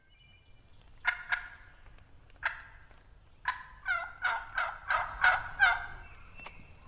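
A turkey hen gobbles in a run of rapid, harsh rattling bursts, a few scattered calls at first, then a quick string of about seven, clear with no talking.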